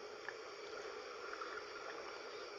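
Soft, steady sloshing of water, a continuous low wash with faint bubbly flickers and no distinct splashes, fairly quiet and even throughout, with no voices.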